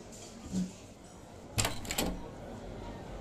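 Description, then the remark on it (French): A restaurant door opens with two quick clattering knocks about half a second apart, over a quiet, faintly murmuring background. “Je laisse quelques dollars à la serveuse et je te dépose cette carte à côté de ta tasse de thé, délicatement, en l'accompagnant d'un sourire, avant de me diriger vers la porte du restaurant.”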